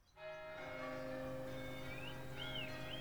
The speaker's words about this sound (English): When the bells start to peal for Sunday morning service